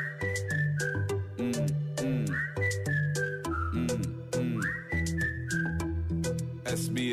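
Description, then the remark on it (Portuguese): A bright whistled melody with sliding notes in a Portuguese-language song plays over a steady, full musical backing with a regular beat, loud and continuous throughout. “Assobia para o lado, assobia para o lado.”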